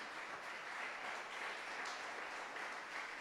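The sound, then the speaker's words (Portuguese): An audience applauds God steadily, a dense wash of many hands clapping at a fairly even level for several seconds, with no voices rising above it. “Não é possível Dá uma salva de palmas a Deus aí, você tem que estar feliz.”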